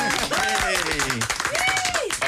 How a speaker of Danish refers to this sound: Og øh, det er den velkomst, vi helst gerne vil give alle gæster, vi har her. Men vi burde faktisk lave en længere klapsalve for jer, fordi I har godt nok lavet vente på jer i lang tid.